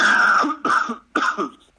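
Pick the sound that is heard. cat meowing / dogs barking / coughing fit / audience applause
coughing fit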